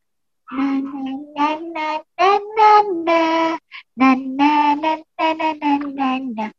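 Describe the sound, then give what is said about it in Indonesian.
A single voice hums a light, bouncy tune in several short phrases separated by brief pauses, the pitch stepping up and down clearly and steadily with no other sounds. “kalian tahu kan apa yang dilakukan kancil saat ia memanggil teman-temannya ber bersenandung kancil pun bersenandung hari itu.”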